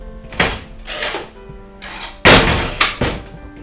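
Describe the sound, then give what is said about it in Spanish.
A door slams shut with a loud thud, preceded by a few softer knocks and rustling movements and followed by a couple of quieter bumps. No one speaks. “Las tres cerditas salen por la puerta vestidas con sus uniformes y gorra.”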